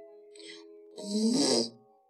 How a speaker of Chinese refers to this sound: 哎呦，小邋遢，好臭！哎，它又放屁了。